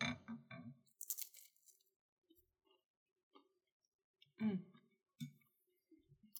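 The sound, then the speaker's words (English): Crisp crunching of a cheese cracker being bitten and chewed during a cheese and wine tasting, a few sharp bursts spaced over several seconds with quiet gaps and faint mouth sounds between them. “So go ahead and take a bite uh, okay. of the of the cheese crackers.”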